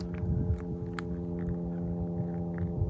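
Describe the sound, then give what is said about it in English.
A steady, droning engine hum of an airplane overhead, its low rumble and layered tones holding constant throughout, with no one speaking. “You know, it's funny, a few minutes ago I said it would be beautiful to see some more airplanes in that sky.”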